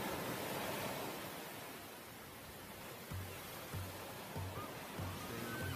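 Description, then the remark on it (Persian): A steady, hissing wash of open-sea waves fills the whole stretch, continuous and moderately quiet, with a faint low throb pulsing underneath toward the end. “به نام خدا ما در میانه دریا هستیم”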